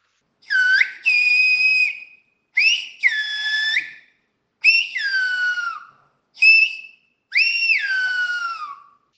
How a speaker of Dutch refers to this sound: maar iets tegenkomen waarbij eh, een, een, hele bijzondere taal eh, werd geuit, namelijk de fluittaal. En die is nog levendig, want die heb ik zelf aangehoord. Dus ik heb jou ook net een stukje eh, even laten, laten horen.